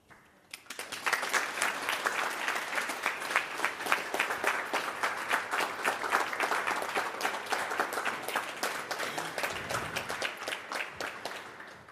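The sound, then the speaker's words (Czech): An audience in the café of the Museum of East Bohemia applauds steadily for about eleven seconds at the end of a talk, a dense patter of many hands clapping at a fairly even, sustained loudness before it starts to thin out at the very end. “Děkuji za ten potlesk, byl možná delší skoro než to moje povídání.”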